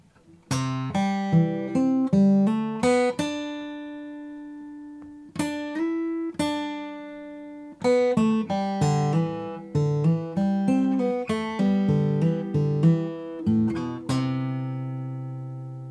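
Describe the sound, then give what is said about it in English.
A solo acoustic guitar plays the lick "Snow Covered Hills", mixing quick runs of plucked notes with a few long ringing notes, ending on a sustained chord. No one speaks. “Today is Tuesday. They are working on a guitar lick, and here it is.”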